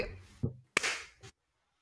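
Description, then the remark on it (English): One sharp, bright hand clap cracks out and rings briefly before fading, with a few softer, duller knocks before and after it and no voices. “little clap that we might be able to replace with a fake clap in editing.”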